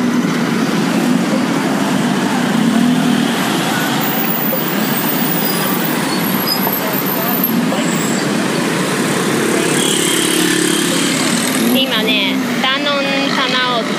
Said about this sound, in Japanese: え今日は旅の2日目、えー、街中をうろうろして、えー、夜チェンマイにバスで移動するんですけどそれまでちょっと街を散策してみようって散策タイムです車がすごい音ですね